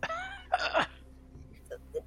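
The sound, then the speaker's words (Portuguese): A short, rough cough bursts out right after a brief voiced sound, moderately loud, likely a person imitating it. A couple of faint, small noises follow. “E ele tosse de novo porque ele acabou de falar demais.”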